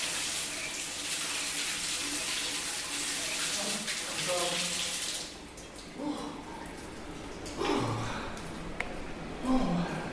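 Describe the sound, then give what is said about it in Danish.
A tap runs hard for about five seconds, a steady rushing hiss of water, then shuts off and voices talk over quieter background sounds. “Nu håber jeg fandme, det er varmere end uh, øh, et koldvandsbrug sådan der.”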